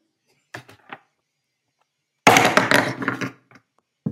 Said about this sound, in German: Also richtig knallgefrorene Weintrauben? Ja, Mann. Ja, ja, lass noch mal so ein Ding auf den Tisch fallen.